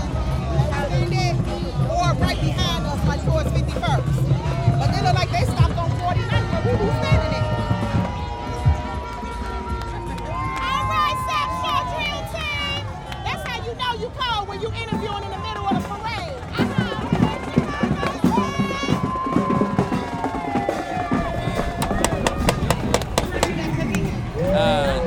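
Busy street parade crowd bustle at the Bud Billiken Parade 2023: overlapping chatter from many people, shouts and scattered percussive knocks and whistles, a steady loud wash of activity throughout.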